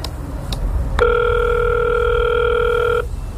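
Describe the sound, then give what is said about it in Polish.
A couple of sharp clicks, then the entrance doorbell of a salmon-and-white tenement at 6 Chocimska Street, housing the Children's Ombudsman office, buzzes with one steady, mid-pitched electronic tone lasting about two seconds before cutting off, over a low background hum. “Więc nie ma sensu pukać, ale zadzwonimy.”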